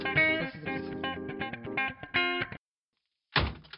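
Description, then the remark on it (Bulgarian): A buzzing, distorted tonal sound runs for a couple of seconds and cuts off. After a short silence, a single heavy door thuds shut. “тъпата врата.”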